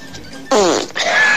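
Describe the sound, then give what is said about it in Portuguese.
A loud, buzzy fart, sent as a voice message by a man of about 40, bursts out suddenly and rasps on for most of a second, then a second sputtering burst follows, sounding slightly compressed like a phone recording. “O cara mandou um peido pra mim, não é possível, né?”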